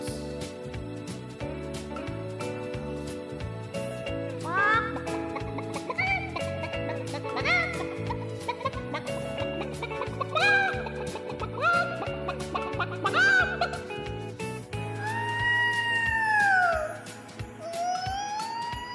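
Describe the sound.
A person imitates clucking hens with a string of squawky, pitch-bending clucks over steady background music, ending in a few long, swooping wail-like calls.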